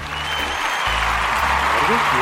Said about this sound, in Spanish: Eh, deberíamos poner unos eh, aplausos para eso, ¿no? tengo los audífonos, no sé si lo que tengo son los aplausos. Vamos a ver, ¿son o no son?